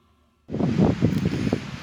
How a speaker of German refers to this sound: Ich stehe hier am Schöckel an der Westflanke und es geht ein sehr starker Wind und es ist ein herrliches Rauschen in den Bäumen.